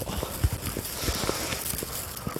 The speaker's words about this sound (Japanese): また、例にもよって歩いております。えー、ビニール袋を持っているので、シャカシャカうるさいと思いますが、すいませんね。